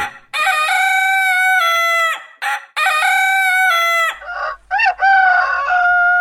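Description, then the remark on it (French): A rooster crows twice in long, loud, strained calls that hold steady, then breaks into shorter, rising squawks and clucks. No voices are heard. “Le coq, n'ayant pas vraiment envie de finir à la casserole, accepta immédiatement”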